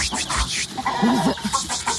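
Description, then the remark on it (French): Hens clucking in a busy, overlapping chorus, several birds calling in short irregular bursts over a continuous background rumble. “Attention les poupoules.”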